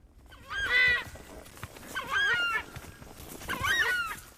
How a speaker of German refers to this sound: Die Iberá-Sümpfe in Argentiniens nordwestlicher Provinz Corrientes, ein Paradies der Artenvielfalt. Nicht nur der südamerikanische Chacha-Vogel ruft hier.